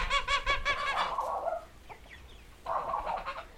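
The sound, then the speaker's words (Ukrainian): Domestic poultry clucking in a household yard: a quick run of rhythmic, throaty clucks at the start, a brief pause with faint chirps, then another stretch of mid-pitched clucking near the end. No one speaks. “Вони розводять у дворі домашню птицю.”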